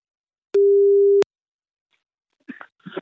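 A single steady telephone ringing tone sounds for just under a second, loud and clear, followed by silence and then a brief snippet of a voice speaking.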